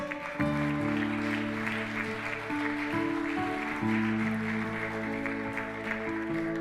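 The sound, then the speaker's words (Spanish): A church audience claps steadily after a prayer in a dense, sustained burst of applause, carried over held keyboard chords that shift a few times, with no one speaking. “Dile un aplauso fuerte.”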